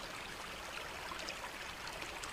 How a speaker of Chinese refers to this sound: 还乡河静静的，河水打着漩涡，哗哗的向下流去。